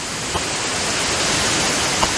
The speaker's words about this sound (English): That's the ocean. Yeah, there's some ocean.